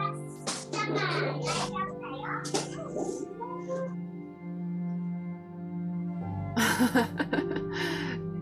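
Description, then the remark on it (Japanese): Two young daughters chatter and squeal in excited bursts, with playful cries and a burst of louder shouting near the end over a steady low hum. “子供ちゃんがねいつもね元気な娘さんが2人いらっしゃって”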